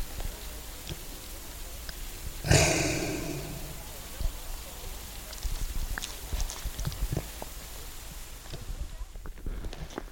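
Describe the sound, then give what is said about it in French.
Faint, irregular clopping and creaking from a sleigh pulled by reindeer in the distance, with a sudden loud snorting breath from a reindeer right beside the recorder early on, then soft outdoor ambience. “Et au loin, on entend eh bien, un traîneau qui est traîné par des rennes.”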